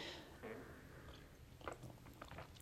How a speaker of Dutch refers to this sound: Ik neem ondertussen even een slokje thee